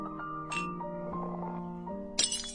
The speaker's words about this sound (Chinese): 水杯被掀翻了，沿着桌边滚到了地上，摔个粉碎。